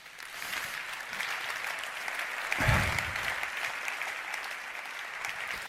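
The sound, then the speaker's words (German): Thin, scattered clapping from a small crowd at a Bundesparteitag (federal party conference) attended by very few people with Corona distancing carries on steadily for several seconds, sounding sparse, with a brief low thump partway through and no one speaking. “auch wenn der ganze Saal applaudiert, klingt es halt immer so, als wäre es nur so ein Trostapplaus”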